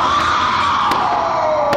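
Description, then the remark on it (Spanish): A single long, terrified scream, seeming to come from inside the obelisk at midnight, holds a loud, high wail that slowly sinks in pitch, over a dense crowd-like roar of celebrations with a few sharp cracks of exploding rockets bursting through. “Es un grito de terror.”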